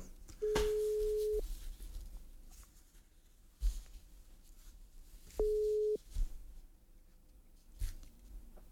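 A telephone ringback tone sounds twice while a call is placed: two steady one-second beeps separated by a long pause, with faint background rustling and a few soft knocks.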